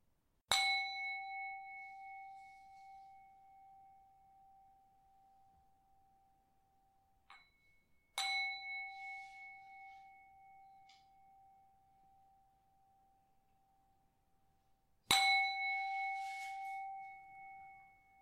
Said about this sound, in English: I am ringing the bell. Then you can come out from the meditation after I ring the, ring the bell for the third time.